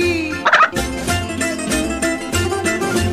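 A quick, warbling turkey-like gobble bursts out early, followed by a steady, tonal backdrop that sounds like music. No one speaks.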